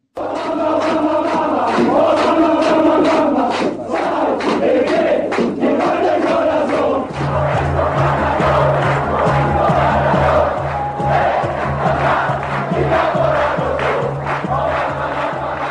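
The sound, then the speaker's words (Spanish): An Italian football stadium crowd chants in unison what is called the most famous chant made for Diego Armando Maradona, loud and rhythmic, with many voices swelling together. Partway through, a low steady drone joins beneath the singing. “vamos con el fútbol italiano, con un cántico, el cántico yo creo que más famoso que se ha hecho a Diego Armando Maradona.”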